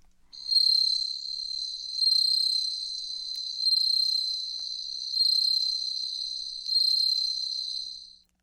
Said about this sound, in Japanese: 正解ですおーやっぱり、ま、聞いてみたらスズムシかなという感じしました